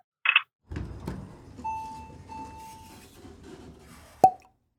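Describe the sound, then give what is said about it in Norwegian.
A digital corkscrew's motorized whirring and grinding runs for several seconds, then a single sharp cork pop rings out at the end, loud. No one speaks. “Da kan jeg jo si skål samtidig, siden det var en såkalt digital eh, korktrekker.”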